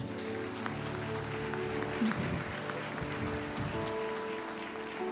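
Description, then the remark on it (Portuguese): A church audience claps steadily in praise of God for about five seconds, a dense, even patter of many hands over sustained low musical tones, with no clear voices standing out. “Aplaude a Deus, aplaude.”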